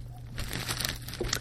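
Wrapping paper crinkles close by in a quick, irregular flurry of crackling rustles that picks up after a brief pause, with a faint low hum underneath and no voices.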